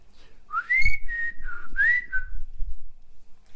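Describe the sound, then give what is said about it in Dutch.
A person whistles a short signature call up close: a rising glide into a steady note, a brief dip, then another upward sweep that falls away. It is one clear phrase with no talking. “Ja, als er iemand liep en ze wisten precies mijn fluitje, hè, dan deed ik altijd zo.”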